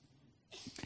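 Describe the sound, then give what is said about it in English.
A single small, soft sneeze from a woman erupts after a brief quiet moment, a short breathy burst with no talking around it. “My wife has the cutest sneeze of any person you've ever met in your life.”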